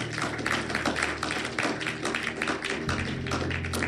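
A church audience claps their hands steadily for several seconds in response to a preacher's teaching, a dense, crackling patter of many overlapping claps at fairly even loudness, with a low hum running underneath.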